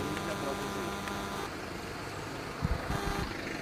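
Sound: street traffic noise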